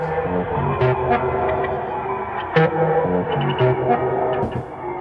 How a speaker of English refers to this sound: The whole EP is wonky halftime signature sound they've made for themselves.